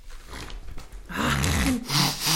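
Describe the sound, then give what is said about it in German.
A wet, noisy sniff draws a runny nose upward, fairly loud, then a voice follows with drawn-out vocal sounds. “noch schön, die Nase hochgezogen.”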